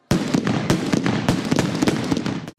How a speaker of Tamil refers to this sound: sit on சிட்டோட first anniversary வந்து முடிஞ்சிருச்சு போடுறா வெடியை